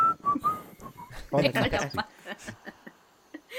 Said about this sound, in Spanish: Iba silbando el alien.